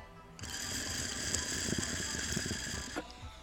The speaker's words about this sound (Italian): Questo è il bubbler. È un minuscolo bong che usi per eh, raffreddare il vapore del vaporizzatore prima del volto.